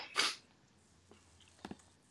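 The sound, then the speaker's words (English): A single sharp sneeze bursts out near the start, followed by quiet room noise and a couple of faint, brief clicks or sniffs. “I'm going to stay muted for as, time I'm not talking because the sneezing sometimes just comes out of nowhere.”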